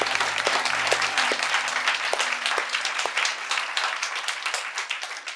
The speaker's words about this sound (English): Now that's good stuff right there. Come on, let's applaud the Lord again. Can we do that?